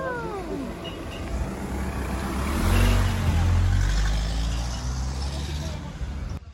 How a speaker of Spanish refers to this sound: ¡Ay, ahí viene un coche!